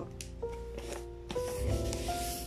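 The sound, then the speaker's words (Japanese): Crisp paper rustling and crinkling as advertising flyers are folded and creased into a paper trash box, with irregular bursts of scraping and handling over a faint steady background hum. “なんかもしかしたらカサカサ髪の音がうるさいって思うかもしれないけど今私これチラシでゴミ箱作ってるからその音だと思ううるさいかな”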